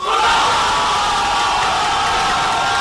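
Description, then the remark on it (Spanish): A huge crowd of Moroccan football fans in Spain roars and cheers for Morocco's decisive goal, a dense, loud wall of shouting voices that holds steady without a break for the whole few seconds. “Así recibían el gol definitivo.”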